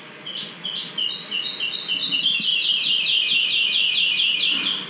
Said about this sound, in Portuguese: Eu pensei, passarinhos, que agradável.